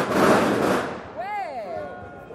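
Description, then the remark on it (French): A firecracker goes off at a street protest: a loud, crackling blast that lasts about a second, then a brief rising-and-falling whistle over a noisy outdoor crowd. “Je crois que votre fonction a été engloutie dans le pétard.”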